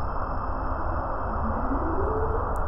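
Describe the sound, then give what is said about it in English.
A single humpback whale call, recorded underwater with high-frequency acoustic technology used by the National Oceanic and Atmospheric Administration, rises slowly in pitch through a steady wash of underwater noise, fairly faint, with no voices present. “Those are the sounds of humpback whales, one of the many types of large marine mammals roaming through this same area recordings captured by high frequency acoustic technologies”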